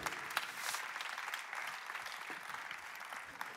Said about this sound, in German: Also Applaus, come on, love you man. Thanks, danke.